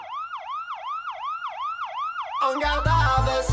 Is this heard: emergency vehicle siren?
yes